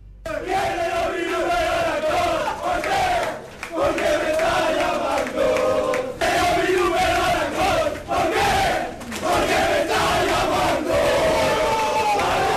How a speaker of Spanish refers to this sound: Así se celebró en el vestuario del Sporting, en el Heliodoro. La victoria del sábado, con un tema que hacía tiempo que no escuchábamos